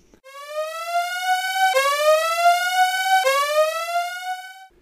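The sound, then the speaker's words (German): A loud siren used as a spoiler alarm sound effect wails alone, its pitch sweeping steadily upward, snapping back down, and rising again, three repeating cycles in about five seconds. “Äh, Spoiler-Alarm hier, ganz kurz, es gibt 10 Sekunden, länger brauche ich nicht.”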